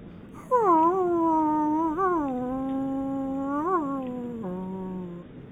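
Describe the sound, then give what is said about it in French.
A person imitates a wolf howl: one long, fairly loud howl of about five seconds, with the pitch rising and dipping, then sliding lower before it fades out. No other sounds accompany it. “Vous voulais que je, je fasse un loup”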